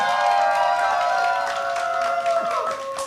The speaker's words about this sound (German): Wir sind nämlich eingeladen zum The Roof Festival hier im Olympiapark in München und wir haben uns natürlich auch ein super cooles Publikum mitgebracht und die klingen so. Macht mal Lärm!